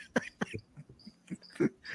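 Faint, thin chirps of a cricket nicknamed Grilinho trill intermittently in the background of a live broadcast running since early evening, while louder, sharp bursts, like short coughs or knocks, also sound. No one speaks.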